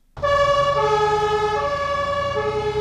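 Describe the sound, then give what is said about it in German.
Warning sirens in Saxony, Germany, during a flood disaster wail loudly and continuously after a brief silent start, their layered tones holding and shifting slightly in pitch over a low engine rumble, with no voices. “Die Sirenen in Sachsen heulen immer noch, doch die Zeit nach der Katastrophe hat bereits begonnen.”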